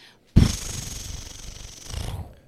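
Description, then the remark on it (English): A crisp rustle of a comic book page being turned, beginning with a sharp flick and continuing as a papery swish for about two seconds before fading out. No one speaks. “Page turn noise.”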